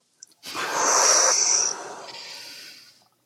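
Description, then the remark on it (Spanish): A single long, deep, breathy exhale during a breathing exercise, after an inhale and a held breath, lasting nearly three seconds and slowly fading out, with no talking over it. “Uno, dos, tres, inhala. Sostén, sostén la respiración, exhala.”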